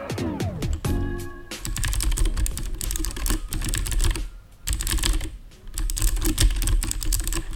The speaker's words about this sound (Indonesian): Ini kita mau episode kali ini mau ini ASMR mechanical keyboard. iya dong gimana sih kan sebagai pengguna mechanical keyboard uh, kita harus menunjukkan suara dari keyboard kita kan